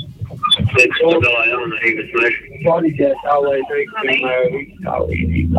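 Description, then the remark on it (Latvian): A walkie-talkie radio transmission at a log-loading work site, with a voice speaking through it, sounding compressed and crackly, continuous over a few seconds with a low steady hum underneath. “Kā reizē mēs tikko varējām dzirdēt arī tā, rācijas, rācijas darbībā, kas kādā brīdī neatņemama darba sastāvdaļa ir.”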